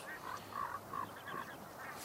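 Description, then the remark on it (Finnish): A flock of geese calling in flight, a string of repeated honking calls heard from a distance, fairly faint and irregular, with no voices present. “Tuolla kauempana meni hanhiparvi, joka kuuluu varmaan lähetykseen.”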